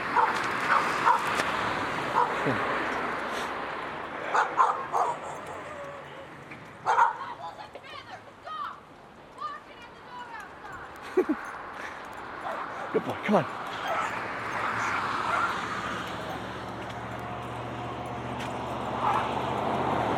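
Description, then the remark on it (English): A dog named Zeke pants steadily, with a few short barks and yips breaking in over a noisy outdoor background and some faint talking, on a day probably in the 80s. “Yeah, you can hear him panting.”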